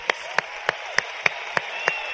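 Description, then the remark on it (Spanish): Audience clapping in a steady, even rhythm to thank the person who invited them, about eight sharp claps at a quick regular beat over a soft background hiss, with no talking. “Y por ese solo hecho, ¿por qué no le damos un fuerte aplauso a la persona que te invitó?”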